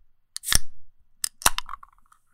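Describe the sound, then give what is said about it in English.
A cider can cracks open: a sharp metallic click and brief rush of hiss, then a couple more snaps followed by a faint fizzing, ringing tail. No one speaks. “I just opened a cider.”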